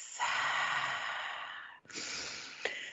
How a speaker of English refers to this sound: let's do a little prayer, shall we? So, let's just take a big, deep breath.